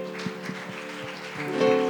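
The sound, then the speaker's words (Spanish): A crowd bursts into steady applause given to the Lord, a dense patter of many hands clapping at once, holding a fairly even loudness and swelling a little toward the end, with no voices over it. “Démosle un fuerte aplauso al Señor, amén.”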